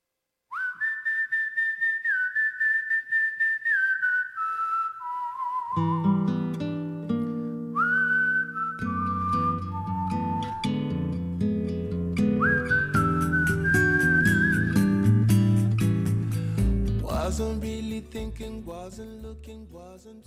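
A clear whistled melody opens alone, then a full band with bass and drums comes in beneath it, the whistling carrying the tune through a steady, mid-tempo pop song.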